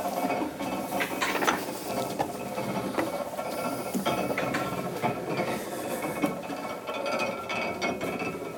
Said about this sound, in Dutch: Hier hoor je het draaien van tandwielen.